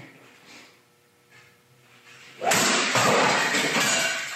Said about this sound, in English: This is a fellow who decided to go golfing against his Keurig machine. Uh, he tweeted, "Guys, MAGA Twitter is drilling Keurig machines with 10 pound practice drivers." Here we go.